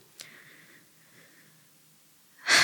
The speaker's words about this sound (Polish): W tym momencie, w którym wziąłem głęboki oddech, bo to jest po prostu wszystko tak.